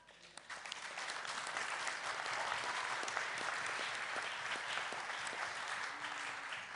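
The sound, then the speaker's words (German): An audience applauds for Jesus, a dense wash of many hands clapping that swells quickly and holds at an even, fairly loud level for several seconds without any talking. “Leitet, das sollte man Jesus einen Applaus geben, oder?”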